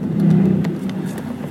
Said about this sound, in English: Yeah, I'm just sitting in some traffic here. Wow. Yeah, it's pretty, uh, pretty thick.